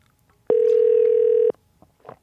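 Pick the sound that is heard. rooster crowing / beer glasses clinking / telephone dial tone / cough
telephone dial tone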